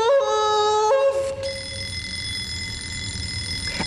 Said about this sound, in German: Also, wenn ich nicht wüsste, dass das nicht sein kann, könnte man glatt meinen, in dem Sarg klingelt ein Wecker.